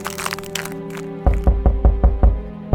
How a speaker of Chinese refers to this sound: 猪大哥只好跑到猪二哥那边敲门求救。